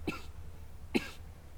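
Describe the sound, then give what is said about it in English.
Two short, harsh coughs about a second apart, fairly loud, with a low steady hum underneath and no talking. “Excuse me, I'm gonna cough.”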